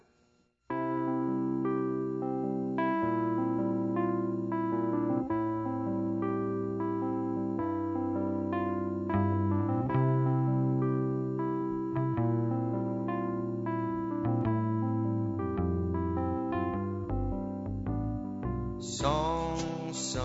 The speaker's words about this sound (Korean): 노래 한 곡 듣고 가겠습니다.